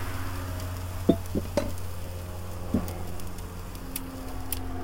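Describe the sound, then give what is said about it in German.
Steady sizzling hiss of food frying on hot pan and grill, with a few brief clicks and clanks of utensils over a low background hum, no one talking. “Einmal Pfanne, einmal Rost. Das klingt doch super.”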